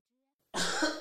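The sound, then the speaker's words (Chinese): A sudden sneeze runs straight into a cough, one harsh, breathy burst of about half a second that starts abruptly after a moment of silence and ends with a brief second push. “这只是一个喷嚏加咳嗽。”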